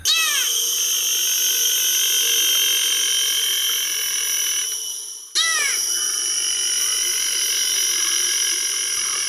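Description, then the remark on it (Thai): A honeyguide bird gives two short bursts of quick, arching chirps a few seconds apart, set against a steady, shrill drone of insects filling the background. No one speaks. “หลังจากนั้นนกชนิดนี้มันจะบินไปตามหาพวกหมีเพื่อไปเรียกเสียงก็น่ารักนะครับ เสียงมันเมี้ยวครือเมี้ยวครือ”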